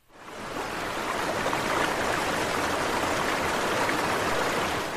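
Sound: flowing river water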